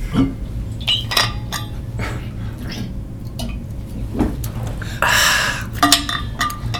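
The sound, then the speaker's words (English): A glass clinks and knocks a few times, followed by a short, airy slurp as someone sips Califia Farms almond milk from a glass, then more light clinking; no one speaks. “uh, I, might, I might have a sip of mine right now.”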